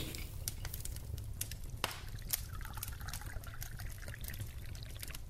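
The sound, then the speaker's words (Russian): Tea pours steadily into a cup for several seconds, a continuous trickle with small splashy clicks, over a low background rumble and no talking, by a fireplace. “Наливаю.”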